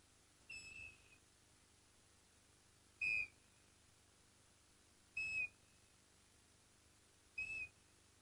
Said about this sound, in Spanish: nos hará recordar con un silbido